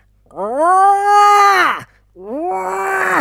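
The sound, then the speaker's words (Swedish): A human voice imitates a roe deer's rutting call: two loud, drawn-out groaning bellows, the first long and falling at the end, the second shorter and rougher, with no other talk. “Sånt brunst! Och jag bara, bara vad, fan, vad fan händer? Vänder mig om, då står det ett rådjur där.”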